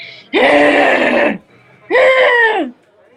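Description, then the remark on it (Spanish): Two loud, raspy guttural screams from a single voice, a vocal demonstration of guttural scream technique, the first about a second long and the second shorter, with a brief pause between them and no speech. “eso, eso es la colocación del gutural.”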